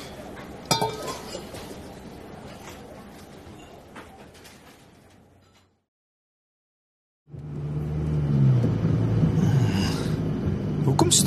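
A car engine hums steadily with a low rumble and some light rattles. It cuts out briefly partway through, then returns louder, droning on to the end.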